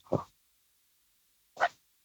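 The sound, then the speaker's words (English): Two brief, sharp dog snarls or yelps as a big dog scuffles with a small dog, about a second and a half apart, fairly loud, with silence in between and no talking. “I was gonna say the big dog helps. putting the smack down on the small dog.”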